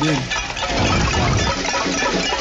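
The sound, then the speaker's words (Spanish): A dense, continuous din of metal pots and pans banged with ladles at a cacerolazo protest of about 200 people in the La Esmeralda neighbourhood of Bogotá, near Carrera 50 and Calle 45, many strikes overlapping at once, loud, with a crowd's voices blending into the clatter. “El cacerolazo, el hoyetazo, el pailazo, aquí sacaron los cucharones, sacaron hasta el perro para protestar.”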